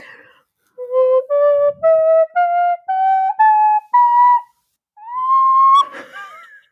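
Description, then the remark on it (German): A flute plays a slow rising scale of seven short, separate notes, then a pause and a longer sustained higher note that ends in a breathy, squeaky wobble. No one speaks. “das war doch dafür da, um die ganze, um die ganze Flöte tiefer zu legen”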